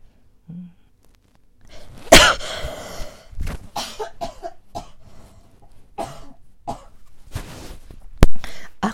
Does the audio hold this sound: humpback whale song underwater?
no